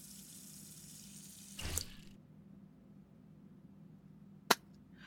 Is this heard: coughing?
no